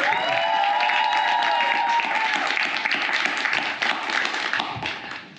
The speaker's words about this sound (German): Applaus.